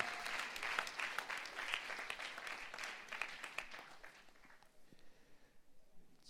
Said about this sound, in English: That was a wonderful worship. Let's just give a clap offering unto the Lord.